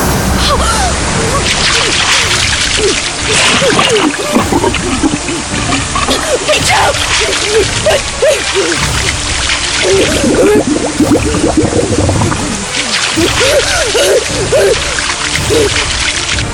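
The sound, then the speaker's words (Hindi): Water rushes and splashes continuously and loudly, pouring in with great force over the main front door, with churning sloshing textures throughout, while indistinct voice-like sounds surface now and then beneath the torrent. “मैंने कितनी कोशिश की पर पानी का ऐसा फोर्स था कि मुझे लगा मैं डूब जाऊंगी”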